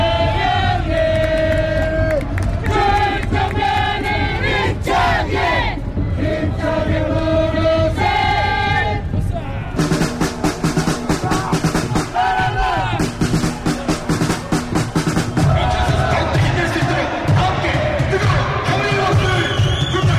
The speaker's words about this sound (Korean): 네, 팬들의 기대와 더불어서 후반전에는 양 팀의 응원이 더 힘차게 진행되고 있는데요. 오늘 인천 축구 전용 경기장에는 8,012명의 관중이 집계됐습니다.